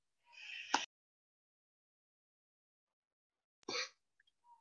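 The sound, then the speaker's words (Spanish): Two sneezes, each a sharp explosive burst, separated by a few seconds of silence; the first opens with a brief breathy intake before the blast. No one speaks. “sí. Salud.”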